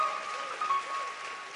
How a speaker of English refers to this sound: Let's get the choir a hand clap. Come on. Praise the Lord.